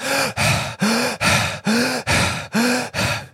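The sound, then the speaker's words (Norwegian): Rapid, heavy hyperventilating breaths by a person demonstrating hyperventilation, about eight quick forceful in-and-out gasps in a steady rhythm, some with a slight voiced catch, with no talking. “Og Et veldig godt eksempel på det er jo hyperventilering. For hvis, hvis man puster sånn her”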